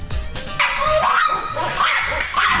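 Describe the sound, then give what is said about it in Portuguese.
Dogs bark and yip in a steady run of high-pitched, overlapping calls, fairly loud, with no talking over them. “Eu acompanho, é bom, é bom se prepara porque vem os cachorros aí.”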